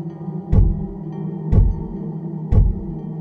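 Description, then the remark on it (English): Three heavy knocks on an apartment door late at night, evenly spaced about a second apart, each a deep, booming thud over a steady low hum with no voices. “It began with a knock on my door. Three knocks, to be exact.”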